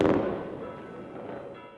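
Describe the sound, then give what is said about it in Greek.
A loud fireworks blast opens, then a rolling wash of crackles and booms rumbles on and slowly fades, echoing across open space, as fireworks light the sky over Syros, Greece, at Easter. “Στην Σύρο τα βεγγαλικά χρωμάτισαν τον ουρανό.”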